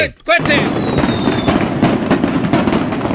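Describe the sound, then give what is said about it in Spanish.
A loud, dense barrage of firecracker explosions from lots of dynamite and gunpowder crackles nonstop in rapid, overlapping bursts, with a thin high whistle at the start and voices faintly mixed into the din. “Mucha dinamita aquí, mucha pólvora.”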